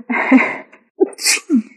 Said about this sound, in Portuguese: Ah, desculpa. Você espirra tão bonitinho.